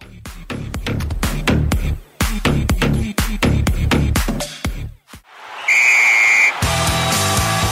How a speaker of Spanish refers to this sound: Ha sonado el silbatazo final.